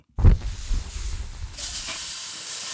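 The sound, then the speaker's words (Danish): A grill being lit: a soft thump of ignition, a rushing roar, then a steady, bright hissing sizzle that swells and keeps going, fairly loud, with no one speaking. “så lad os lige øh, allerførst få tændt op for grillen og få sat gang i Charbroil Barbecue bykvisen.”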